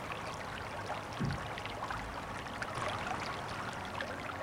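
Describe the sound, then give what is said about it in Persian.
A steady babble of river water flowing over stones on the riverbed, with bright splashy texture continuing evenly throughout and no voices. “روبروت یه رودخونه است بریم سمت رودخونه سنگای کف رودخونه دیده میشن”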